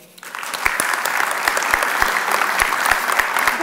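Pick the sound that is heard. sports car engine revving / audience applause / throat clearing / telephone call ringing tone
audience applause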